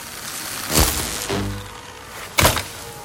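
A small remote control droid topples and crashes, a hard thunk followed by a brief metallic clatter and rattle, then a second sharp knock moments later, with no voices.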